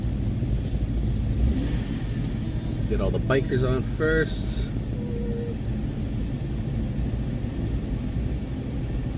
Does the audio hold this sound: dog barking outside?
no